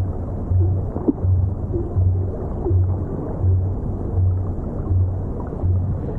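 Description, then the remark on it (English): Blue whale calls: a steady series of deep, low-frequency thumps, about eight in a row at an even pace, under a constant wash of underwater noise, with one brief sharper sound early on. “Yeah, that thumping noise, that low frequency thumping.”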